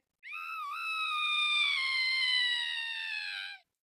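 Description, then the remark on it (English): A single long, high-pitched scream sound effect holds steady for over three seconds at loud volume, then sags slightly in pitch before cutting off. No one speaks. “Yes, the scream because when you're on social media as long as I have for work and for everything, and you see all the crap that's being posted, you literally scream all day.”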